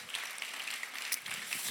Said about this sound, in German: Hey, wie wäre es, wenn wir uns nochmal gegenseitig einen riesen Applaus geben?